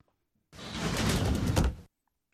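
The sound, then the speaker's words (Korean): A room door slides open with a steady, rasping scrape that lasts just over a second, fairly loud, then stops abruptly into silence. No one speaks. “방문을 열자마자 훅 끼쳐오는 냄새들”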